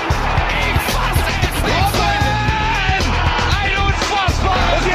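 A stadium crowd at a football match erupts after an own goal in a roaring wall of cheers and yells, loud and sustained for several seconds, with rising whoops and shouts layered over dense, continuous crowd noise.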